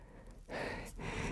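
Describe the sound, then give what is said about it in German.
Breathy gasping from a single man's voice: a softer inhale, then two heavier, airy breaths in quick succession, sounding winded and relieved, with no words spoken. “Danke. Das war knapp, keuchte er.”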